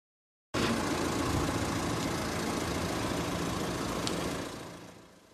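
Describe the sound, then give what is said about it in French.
A parked car's engine idles steadily, a continuous low rumble with a faint mechanical hum, holding even for several seconds before gradually fading toward the end. No one speaks. “Mathieu Klein, le maire socialiste de Nancy, vient de signer un arrêté pour verbaliser les voitures qui tournent hors de la circulation.”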